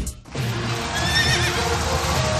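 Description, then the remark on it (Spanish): A horse neighs loudly, a long shrill whinny with wavering pitch that starts after a brief quiet moment and carries on over a dense, noisy background. “Vuelven las carreras de caballos todos los domingos a partir del 5 de marzo vuelve la emoción.”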